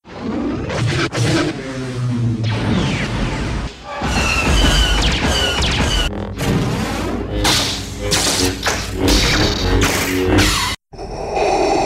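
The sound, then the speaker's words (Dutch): A loud, dense montage of Star Wars film sound effects: roaring engines, whooshing swells, crashes and booming thuds, with shifting tones and abrupt cuts between them, ending after a brief drop to silence. “als je het over geluidseffecten hebt. Uh, we laten er even een paar horen. Dan kan je niet om Star Wars heen.”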